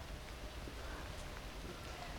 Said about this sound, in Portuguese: Já tá chovendo por aí